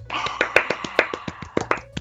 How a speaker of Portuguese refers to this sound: Palmas.